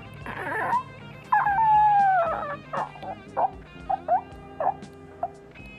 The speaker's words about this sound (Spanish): Yo sentado atrás solo escuché el motor del auto y la fricción de la tracción trasera, acompañado de un extrañísimo sonido como un chillido, un alarido ahogado.